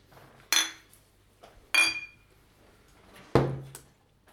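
Three separate bright clinks of beer glasses knocking together in a toast, each with a short ringing tail, spaced about a second apart, fairly loud against a quiet background.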